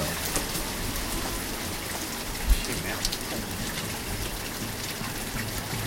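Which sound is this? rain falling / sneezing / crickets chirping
rain falling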